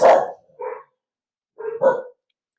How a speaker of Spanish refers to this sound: Ah, alerta de perros.